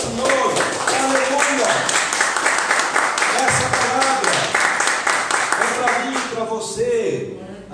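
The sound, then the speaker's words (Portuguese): An audience applauds steadily for several seconds, a loud, dense wash of clapping with voices calling out over it, tapering off toward the end. “Aleluia, vamos aplaudir ao”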